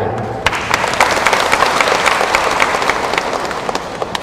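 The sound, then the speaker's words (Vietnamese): An audience breaks into sustained applause, dense overlapping claps at a steady, loud level for several seconds, with no voices. “xin quý vị dân cao tràng vỗ tay”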